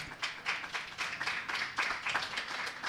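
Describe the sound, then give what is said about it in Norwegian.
An audience claps for a face mask offered as a prize, in a steady, dense patter of sharp hand slaps, moderately loud and sustained throughout, with no voices over it. “Vi klapper for munnbinden. Må klappe for munnbindet.”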